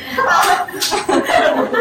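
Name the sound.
hand clapping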